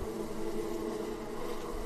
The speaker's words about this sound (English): there's a bee, there's a bee, there's a bee somewhere. It's not being picked up.